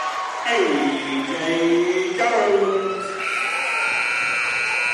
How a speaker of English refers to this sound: Columbia shot at the buzzer, no good, and that's the end of the first quarter.